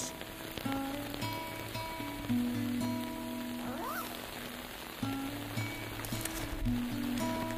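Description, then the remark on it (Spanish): Steady rain falls outdoors as a person walks on foot and opens an umbrella, a continuous dense patter and hiss of drops hitting surfaces, with a low droning tone running underneath and no one speaking. “Abro el paraguas y pienso en otros colegas que van a caballo, incluso en lancha a entregar la guía.”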